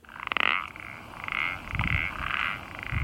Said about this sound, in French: Vous avez aussi une semelle qui grince à nous présenter Oui, le pélodite ponctué, beaucoup moins courante que les autres. Hein. Il a un chant assez rigolo celui-là.